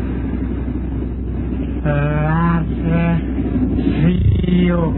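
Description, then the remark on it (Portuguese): A train draws near over a steady low rumble, sounding several loud, tonal horn blasts, one long and two shorter, the last bending in pitch. “olha o trem, a luzinha do trem, ele vem se aproximando.”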